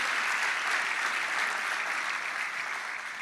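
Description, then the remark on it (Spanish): A crowd applauding steadily for the praise team and choir, a dense wash of many hands clapping at an even level for several seconds, with no voices standing out. “Yo quiero que le den un aplauso a ese equipo de alabanza, a ese coro, a esas voces.”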